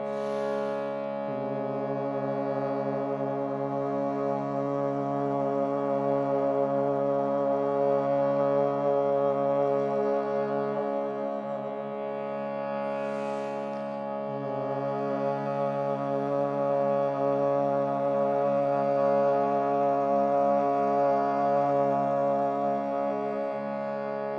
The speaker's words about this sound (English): And now on your exhalation, create the ah sound. Start with the hum and move into the ah.